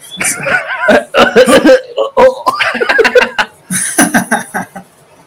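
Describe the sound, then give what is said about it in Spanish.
A person coughs on cue, a series of short, harsh bursts over a few seconds, broken up by laughter and chuckling. “A ver, tose.”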